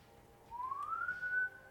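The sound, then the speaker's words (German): A single clear whistled tone slides upward in pitch and holds steady for about a second before stopping, moderately loud, with no talking. “Pfeifen oder was?”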